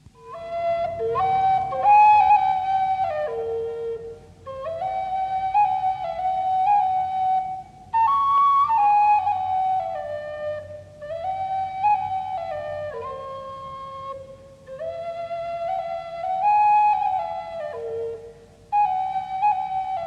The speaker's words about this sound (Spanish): una flauta de barro de 30 centímetros de largo de muy hermoso sonido con seis agujeros, que da la octava en los dos extremos de su escala.